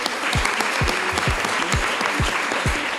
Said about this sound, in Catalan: Un aplaudiment per a vosaltres, per favor. Gràcies.